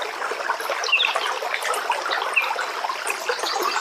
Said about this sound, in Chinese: 流水潺潺，鸟鸣啾啾，带我们走进那闻得到泥土香气的大自然。